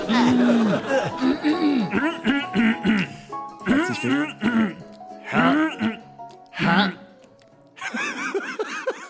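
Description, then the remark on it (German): A series of loud, exaggerated throat-clearing sounds made as a gag at the start, several rough voiced bursts in a row, ending with a brief spoken word. “Der alte Räusper-Gag zu Beginn.”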